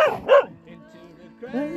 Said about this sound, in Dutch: En de honden zijn lekker aan het blaffen.